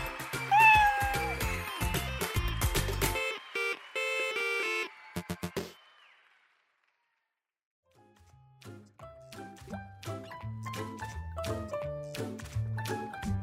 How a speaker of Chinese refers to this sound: 山猫也觉得好高兴。还难得的喵了一声。